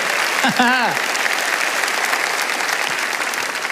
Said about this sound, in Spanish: Alguien tiene que aplaudir más que eso si lo crees. ¡Aleluya!